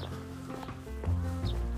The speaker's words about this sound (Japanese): その今スズメチュンチュン鳴いてますけどスズメはずっと動いてるじゃないですか空飛んだりぴょんぴょん電線の上跳ねたりして生きるために命をつなぐためにやってるわけじゃないですか